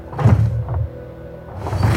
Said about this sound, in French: Il faut fermer les portes de l'église. Je vais pousser avec vous, l'abbé. Poussons